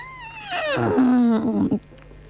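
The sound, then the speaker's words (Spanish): A person imitates an elephant, voicing a loud, brassy trumpet: a high wavering cry that slides downward into a sustained, buzzing low tone, ending abruptly after about two seconds. “Y haciendo este sonido. A ver. Llega el elefante.”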